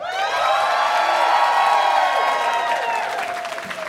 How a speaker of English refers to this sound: Now, let's get a big round of applause for your host.